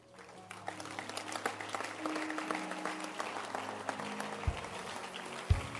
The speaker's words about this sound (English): Or oh, keep clapping your hands. Keep clapping your hands.